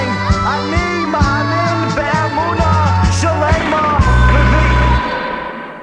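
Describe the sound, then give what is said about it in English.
A man sings the Jewish prayer song Ani Maamin loudly and with strain, his voice rising and bending through long, wavering held notes, continuous for the whole stretch before fading out. “What a beautiful song.”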